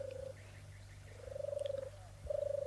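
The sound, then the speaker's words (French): Birds sing in three drawn-out, warbling phrases, each a steady fluttering note separated by short pauses, clear over a faint low hum. “Ça sent la cire, on entend les oiseaux.”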